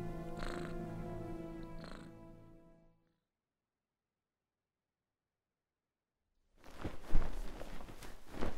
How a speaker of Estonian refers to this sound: ilmselt olin vahepeal tukastanud, sest mäletan selgesti, et nägin und, kui kassi äge rabelemine mu äratas.